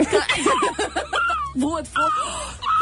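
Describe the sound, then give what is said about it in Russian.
A person mimics seagull cries: a quick run of wavering, squawking yelps followed by a few longer, drawn-out calls that rise and fall, fairly loud. “Кто ну, а? так, как делают чайки?”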